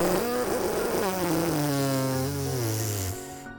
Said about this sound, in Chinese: 糟糕了，我怎么都忍不住。其实啊，放屁这个问题。